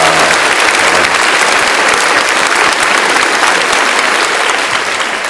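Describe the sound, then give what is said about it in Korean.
A church audience bursts into sustained, loud applause offered to God after the choir's hymn, a dense wash of many hands clapping steadily for several seconds without a break and with no voices standing out. “우리 하나님 앞에 다시 한번 뜨거운 영광의 박수 올려드립니다”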